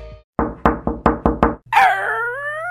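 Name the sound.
door opening sound effect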